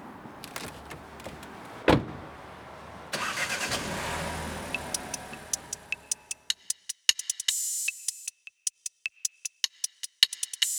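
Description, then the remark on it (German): A thump, then a car engine starts and revs, fading as the car pulls away, followed by a run of regular, sharp ticking clicks. No one speaks. “Und dann fahre ich jetzt mal los.”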